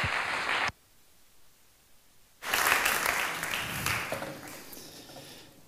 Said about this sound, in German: Und lass uns mit dem Applaus ihn willkommen heißen. Danke.